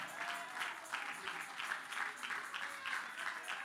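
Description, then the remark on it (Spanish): An audience applauds strongly for the Father, the Son and the Holy Spirit, a dense wash of many hands clapping at an even level without pause, with a faint murmur of voices mixed into the noise. “Dale un aplauso fuerte al Padre, al Hijo y al Espíritu Santo.”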